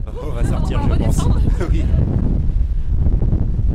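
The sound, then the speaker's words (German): A loud, steady roar of rushing air fills a wind tunnel used for testing small-scale models of buildings, constant throughout, with a muffled voice briefly audible beneath the rumble early on. “Heute nutzen ganz unterschiedliche Architektur- und Ingenieurbüros den Windkanal.”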